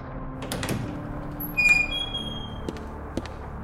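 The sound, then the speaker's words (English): A door swings open with a thin, high squeak and a soft creak, framed by a few light clicks and knocks over a low, steady background hum. No one speaks. “Wesley opened the door, the thing letting out a subdued hiss as it revealed the room within”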